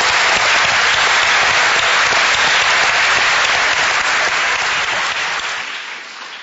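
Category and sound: crowd, audience applause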